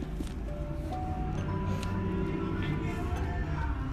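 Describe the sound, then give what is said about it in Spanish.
A heavy truck rumbles by outside, a deep, steady engine drone with a droning mechanical whine above it, holding at an even loudness throughout. “Malditos camiones los odia.”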